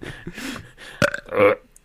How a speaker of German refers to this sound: Ich dachte mir, wir furzen jetzt an. Was so äh, passend ist.